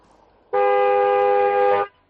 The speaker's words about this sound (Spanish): Soy el loco del claxon